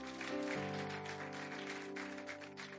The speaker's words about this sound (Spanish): denle un aplauso bien fuerte a nuestro Dios.